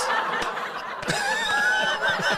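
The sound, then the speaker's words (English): A burst of canned laughter played as a sound effect, a crowd snickering and chuckling continuously for a couple of seconds at a steady, fairly loud level with no one speaking. “I just wanted to yeah, play some uh, laughter.”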